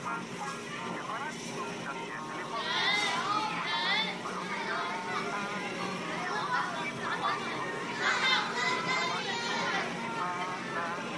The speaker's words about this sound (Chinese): 有人唱歌是对的，然后有音乐是对的，其他什么都没有，因为这个是我在一个博物馆里录的一段音乐。